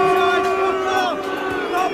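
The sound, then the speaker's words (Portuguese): A large crowd of Liverpool football fans boos and shouts at the arriving Manchester City team bus, a loud, continuous wall of massed voices with sustained jeering tones and no single speaker standing out. “receberam vaias, receberam gritos, mas nenhuma, nenhum ato de violência”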